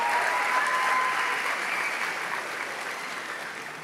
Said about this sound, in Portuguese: Nossa senadora Damares, seja bem-vinda. Alegria te receber aqui. Nosso deputado Gilvan Máximo também está aqui. Celebre ele com a salva de palmas.